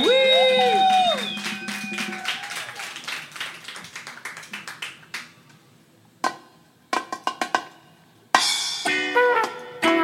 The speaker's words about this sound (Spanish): démosle un fortísimo aplauso al estilo de Sonidos Independientes